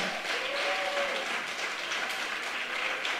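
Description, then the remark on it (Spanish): An audience applauds Jesus Christ, many hands clapping in a dense, even roar that holds at a constant level for about three seconds, with a brief higher-pitched cheer rising from the crowd early on. “Dale fuerte el aplauso a Jesucristo.”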